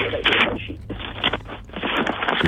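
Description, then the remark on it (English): Continuous rustling and crinkling of paper being handled and shuffled in the background, with bursts of dry scraping texture over a low background hum for a couple of seconds. “Everybody hears the paper shuffling there.”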